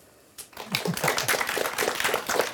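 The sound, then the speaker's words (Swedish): After a brief quiet moment, a burst of applause at a quiz competition starts abruptly, becoming a dense, crackling patter of many hands clapping that stays fairly steady and lively to the end. “Så får det vara applåder.”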